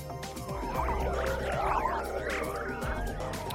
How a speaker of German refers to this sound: Und so klingt so ein Sonnensturm, wenn man ihn in Sound umwandelt.